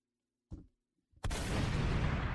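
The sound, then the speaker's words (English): A soft low thud, then a loud, abrupt gunshot sound effect played from a soundboard erupts into dense, roaring noise and keeps going without fading. No one speaks. “I be pressing any button sometime, but like, let's let's give him a gunshot too.”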